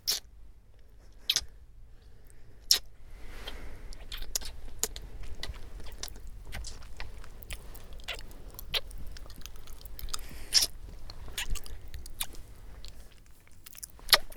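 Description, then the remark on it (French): Wet, crunchy chewing and mouth sounds, with irregular sharp clicks and smacks repeating over a low steady rumble, no voices present. “la mastication, c'est une action qui, monopolise euh, différentes parties du corps.”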